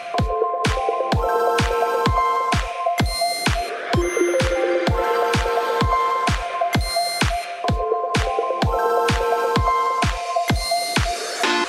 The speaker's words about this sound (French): il a composé un morceau avec tous les sons de démarrage des consoles Nintendo, depuis la Game Boy jusqu'à la Switch. Et franchement, ça le fait pas mal.